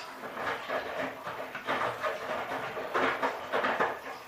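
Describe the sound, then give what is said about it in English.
A front-loading washing machine with a glass door, its drum turning with laundry inside, heard from about one meter away: a steady rumble with soft rhythmic swishes and thumps repeating roughly every half second. There are no voices. “That's the sound when the tram is turning with the laundry in it.”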